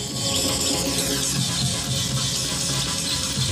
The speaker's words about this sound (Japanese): それにしてもこれぶっ飛んでるねこのビートちょっと音上げようか